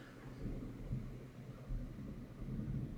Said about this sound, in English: With thunder in the background